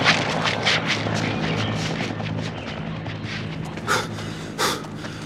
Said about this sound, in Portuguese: Você quer esconder-se do helicóptero ou não?